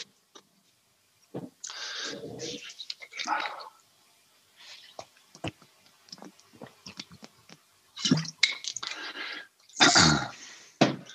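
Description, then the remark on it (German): Sipping and swallowing of water, with soft gulps, wet mouth clicks and a couple of rougher throat-clearing bursts near the end, set against near silence. “Ich habe gerade irgendwie, ich muss gerade mal einen Schluck Wasser trinken.”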